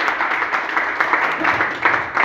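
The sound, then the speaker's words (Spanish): An audience at a Spanish-language church service claps their hands for the King, a dense, steady patter of many overlapping claps sustained throughout at a fairly loud level. “Dale palmas al Rey”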